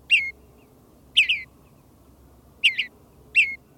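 A bluebird sings four short, mellow burbling phrases, each a quick warbled cluster with irregular pauses between, clear over a faint low background rumble.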